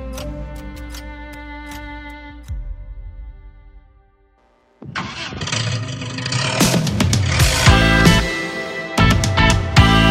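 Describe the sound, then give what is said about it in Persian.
After a steady tonal hum fades into a short silence, a Paykan car engine turns over and catches, then revs loudly, its roar surging and dipping several times. “امیدوارم یه روزی وقتی داریم سوار این پیکان میشیم بگیم بالاخره روزهای خیلی خوب هم برای ما ایرانیا رسیدن”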